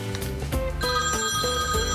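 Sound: phone ringing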